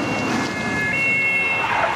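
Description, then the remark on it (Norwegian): Sirens wail over a noisy outdoor scene outside a courthouse as the car carrying Treholt, led by police motorcycles, approaches; their steady high tones hold and shift pitch against a dense background of traffic and crowd rumble. “Nå hører jeg eh, sirener.”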